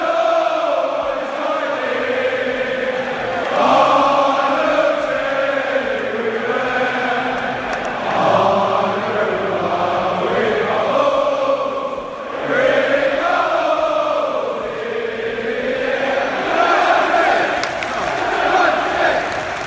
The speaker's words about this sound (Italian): e il settimo posto ci danno l'assist finalmente per eh, parlare del West Ham e farvi sentire, l'avete appena ascoltato, il bellissimo inno della squadra londinese.